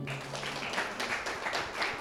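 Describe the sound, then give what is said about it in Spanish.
An audience claps together in a steady, dense patter of applause for the Lord, fairly subdued rather than thunderous, sustained evenly for the whole two seconds. “Pero antes que siga, quiero que le den un aplauso fuerte al Señor.”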